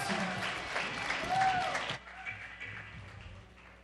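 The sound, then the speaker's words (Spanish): A crowd bursts into loud applause welcoming a children's rock band to the stage at a second-anniversary celebration, dense clapping with a brief whistle, then the clapping drops off abruptly and continues faintly in the background. “recibimos con un fuerte aplauso a …”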